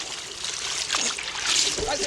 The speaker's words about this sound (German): Was ist denn das für ein Lärm? Der Engel hat meine Katze ins Wasser geworfen.